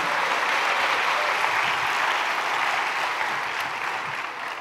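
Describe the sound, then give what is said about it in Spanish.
Steady audience applause given to God during a sermon, a dense crackle of many hands clapping at an even, sustained level that eases slightly toward the end, with no voices over it. “Eso es, denle un aplauso a Dios porque Dios cumple sus promesas.”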